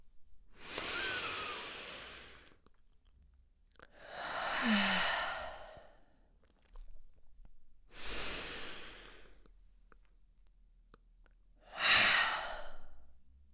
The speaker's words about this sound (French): prenez deux grandes inspirations au cours desquelles vous allez gonfler au maximum vos poumons. Peut-être que vous montrez aussi vos épaules en même temps pour aider l'inspiration profonde. Et à l'expiration, vous relâchez tout simplement. On y va.